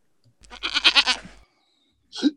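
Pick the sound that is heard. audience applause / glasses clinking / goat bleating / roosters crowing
goat bleating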